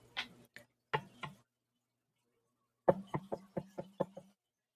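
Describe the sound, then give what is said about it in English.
Sharp knocks on a wooden surface, knocked for luck against getting sick: a few spaced raps, a brief pause, then a quicker run of about eight knocks. No one speaks. “And then, yeah, I mean, I'm gonna uh, let me knock on wood for that so I don't get sick.”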